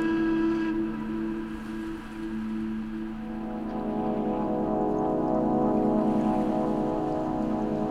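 A fishing boat far off on a calm ocean on a hot, sunny morning: a steady, layered mechanical drone with sustained tonal hum, over a soft continuous wash of water noise, with no voices.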